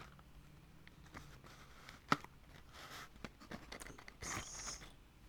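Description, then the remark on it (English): Quiet handling of wooden matches being played with in a 100% recycled cardboard box: light scattered ticks and scrapes, one sharp click partway through, then a brief rustling rattle near the end. No voices. “playing with matches in a cardboard box”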